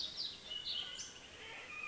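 A red-necked grebe calling on a very warm, breezy day: a few high, thin squealing notes in short bursts, fairly faint over a steady low background rumble, with no one speaking.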